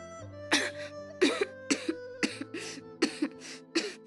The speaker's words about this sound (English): she was caught up in a fit of coughing and could not speak for some time.